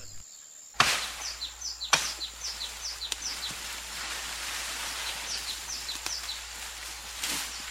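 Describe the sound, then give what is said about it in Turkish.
A hunter snapping tree branches with sharp, dry cracks, two loud ones near the start followed by a few lighter breaks, while small birds chirp steadily in the background outdoors. “Peki o dalları neden kırıyor ki?”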